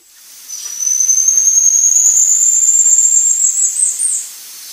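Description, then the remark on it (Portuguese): A single long, high, pure whistle from a golden-headed lion tamarin (Leontopithecus), holding steady then rising slightly in pitch and wavering toward the end, loud over a faint hiss with no talking. “Toca o mico estrela e toca o mico leão da cara dourada.”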